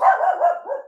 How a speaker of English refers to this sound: that's my dog uh, because there's a moving truck outside.